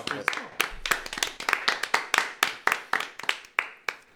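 Audience applause: a steady run of sharp, bright hand claps, fairly loud and overlapping, sustained for a few seconds with an uneven, dense rhythm.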